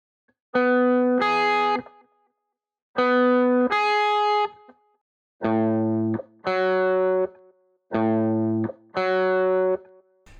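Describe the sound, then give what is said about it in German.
A distorted electric guitar plays a short two-note rising figure, a major sixth interval given as a rock example, repeated four times with brief pauses between; the notes are thick, buzzy and sustained, with no voices. “für die große Sechste war es nicht so einfach, ein Rockbeispiel zu finden.”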